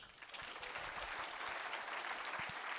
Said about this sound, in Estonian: aga aplaus Ain Hansetile